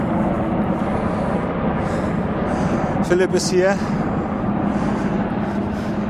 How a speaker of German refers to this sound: Über mir fliegen gerade Hubschrauber der Polizei äh, Richtung Lenkstade. Ich tapse hier gerade durch den Wald.